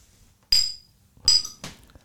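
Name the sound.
drinking glasses clinking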